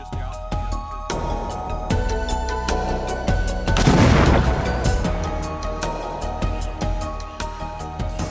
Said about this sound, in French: Parfois, on mouille les sièges du véhicule afin de protéger du feu certains indices qui serviront plus tard aux étudiants. On peut enfin faire exploser le dispositif.